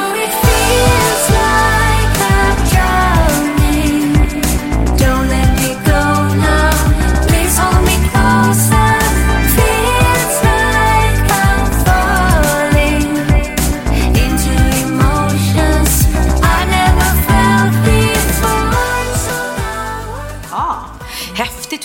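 A loud, polished pop song, a brand-new track by a female singer that will be part of a new album, her lead vocal over a full band and a steady beat, playing continuously and easing down slightly near the end.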